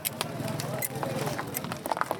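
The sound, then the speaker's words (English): The hooves of a family's donkey cart clip-clop in an uneven, steady rhythm as it arrives at a crowded registration point for families, with a busy murmur of people talking underneath. “He can't work fast enough people keep arriving, including one family who clip clop in on their donkey cart.”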